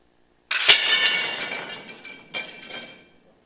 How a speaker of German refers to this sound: Ich habe hier noch was drin meinen tollen Beutel. Es macht Krach. Äh, das sind kaputte Teller.